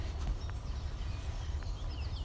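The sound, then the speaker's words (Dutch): Faint chirps from small birds in the background come and go over a steady low outdoor rumble, with no one speaking. “Misschien kun je bij mij op de achtergrond de vogeltjes horen.”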